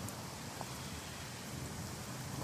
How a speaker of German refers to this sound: Oh, Donner. Donner, äh, äh, es regnet rein.